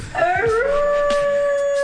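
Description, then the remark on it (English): A man's voice imitates a wolf, letting out one long, loud howl that rises in pitch and then holds a steady, drawn-out tone. “and there he is, the big bad wolf from Brush Avenue.”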